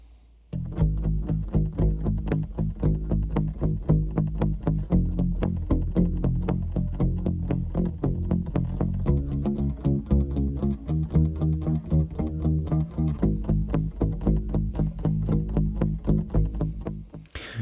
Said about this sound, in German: so einen gemuteten ähm, ja, äh, Jazz-Bass mit äh, äh, Plektrum, den er da spielt, und noch so einen, so einen äh, Steinberger Upright